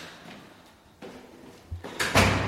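A door is handled as people head out through it: a soft knock and rattle, then a louder thud and a scraping, sliding sweep as it swings or closes, with no voices.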